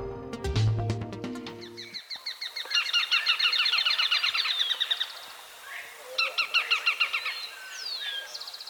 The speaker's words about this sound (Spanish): Estamos oyendo al rastrojero o chamicero pizarra, en una grabación captada en Valle del Cauca. Este pajarito, que mide unos 15 centímetros, se alimenta de insectos y arañas y le encanta vivir entre los rastrojos.